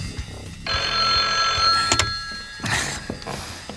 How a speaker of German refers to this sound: Zwei Wochen später klingelte in der Zentrale der drei Detektive das Telefon.